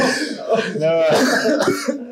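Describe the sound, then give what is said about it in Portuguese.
A man coughs and clears his throat, two rough, raspy bursts tangled with voiced, groaning sounds and some background chatter. “A testosterona em excesso, ela só tem um problema. É a tosse.”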